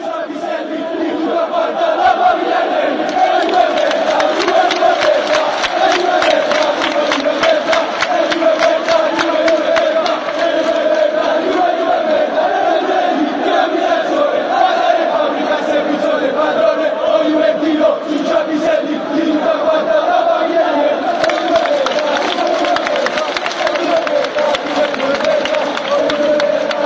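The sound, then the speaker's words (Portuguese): A large crowd of Napoli football supporters chants in unison, a loud, sustained roar of many voices with a steady rhythmic pulse running throughout, no single voice standing out. “Som das Torcidas #66 Napoli”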